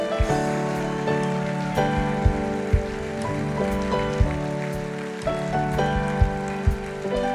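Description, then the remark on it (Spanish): An audience applauds people who have come forward to the altar, in a steady, dense wash of clapping that holds at an even level throughout, with sustained musical chords ringing underneath and a few sharper claps standing out. “Den un mejor aplauso a ellos.”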